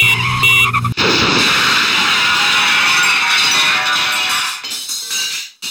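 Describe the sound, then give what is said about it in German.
An Astra car crashes nose-first into the front window of Mr. Chang's restaurant with a sudden loud impact, followed by several seconds of dense crashing noise over steady shrill tones before it dies away. No voices. “Der Astra steckte mit der Schnauze im Vorderfenster von Mr. Changs Restaurant.”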